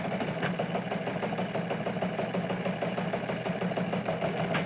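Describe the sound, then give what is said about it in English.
A news teletype sound effect, played to make a show sound like a news show for a "Dateline Canada" segment, clatters steadily, a dense, fast mechanical chatter with an even, unbroken rhythm at constant loudness. No one speaks over it. “Uh, where's my news teletype here? Let's, let's make it sound like a news show.”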